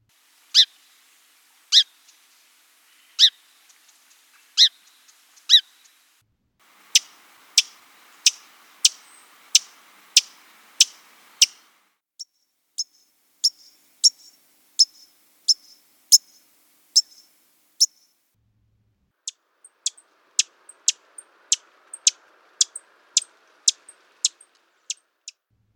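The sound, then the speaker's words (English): Chip calls of four sparrow species in turn, Song, Fox, White-crowned and Lincoln's Sparrow: sharp, clear, isolated notes, widely spaced at first, then quicker runs in each later bout. Fairly loud, with no talking. “I'm going to play that series one more time without calling the ID, but I'll leave them in the same order. So Song Sparrow, Fox, White Crown, and Lincolns.”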